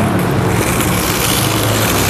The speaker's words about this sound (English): I have to go back into the car park keep out of the cold while I try and take stock of the situation. Oh god, there's a car coming.